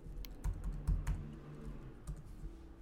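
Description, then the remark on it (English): Rapid keystrokes clatter on a computer keyboard as someone types to look up the fastest typist's words per minute, a steady burst of clicks with a few louder taps, continuing for a few seconds with no voices. “Okay, I'm I'm typing.”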